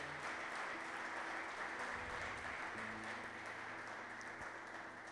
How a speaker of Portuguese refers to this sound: Se você quer dar uma salva de palmas ao Senhor.